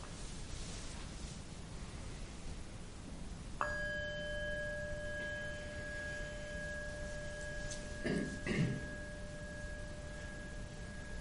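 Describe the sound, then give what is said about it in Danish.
A single bell strike rings out clearly, its pure tone sustaining for several seconds over a steady background hiss, with a couple of brief rustles near the end. “Så vi starter igen med at lytte til klokkeslag.”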